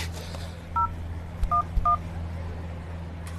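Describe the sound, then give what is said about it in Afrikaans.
Three short telephone keypad tones beep in quick succession as someone dials a phone to call a captain, each a brief dual-pitched chirp, over a steady low electrical hum with no talking. “bel die kaptein.”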